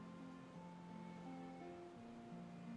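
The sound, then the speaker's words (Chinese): Roaring sea waves in a storm, with howling wind, make a steady, rushing wash that never lets up, with sustained low droning tones shifting slowly beneath it. No one speaks, and the overall level stays quiet. “听着海浪的轰鸣和风的呼啸，冉娜真感到害怕。”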